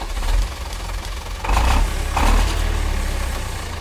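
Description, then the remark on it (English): An engine turns over and catches, with two brief revving surges, then settles into a steady, low idling rumble. No one speaks. “I'd better start the engine on the Piccolo Pod song generator.”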